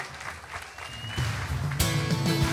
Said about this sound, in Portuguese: Dá um aplauso a Jesus outra vez. O teu aplauso aqui é assim, aleluia, tá? Glória a Deus.